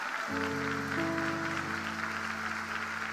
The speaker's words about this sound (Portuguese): Alguém deu um aplauso ao Senhor pela palavra do Senhor que nunca falha.